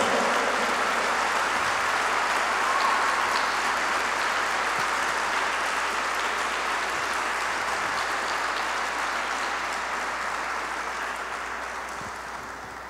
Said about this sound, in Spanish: Sí, dale un fuerte aplauso al Dios Todopoderoso.